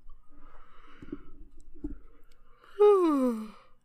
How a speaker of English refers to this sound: no yawning on the podcast. uh, Sorry, uh, didn't know I, that was a rule.